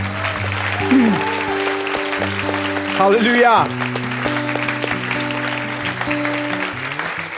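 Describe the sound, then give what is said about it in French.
An audience at a worship service applauds and cheers as an acclamation for Jesus over sustained keyboard chords, with a single voice calling out briefly midway through the clapping. “Au nom de Jésus, tous ceux qui l'aiment lui donnent une belle acclamation ce soir d'amour.”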